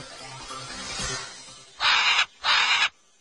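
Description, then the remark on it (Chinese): Two loud, harsh macaw squawks in quick succession, each raspy and about half a second long, rising sharply out of a quieter rustling background with no one talking. “No， 这些是金刚鹦 鹉。”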